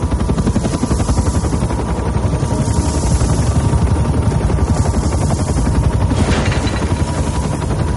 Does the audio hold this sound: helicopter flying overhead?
yes